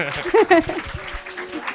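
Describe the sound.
A short burst of welcoming applause, a steady patter of clapping mixed with voices calling out and cheering, loudest in the first half before thinning out.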